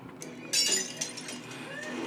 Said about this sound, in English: Immediately they start breaking glass and a party begins.